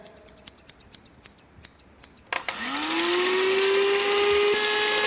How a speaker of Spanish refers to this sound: Ahora vamos a cortar, cortar cabezas o cortar algo, o a ver qué cortamos. Alcánzame las tijeras.